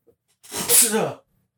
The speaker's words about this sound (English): I'm gonna sneeze.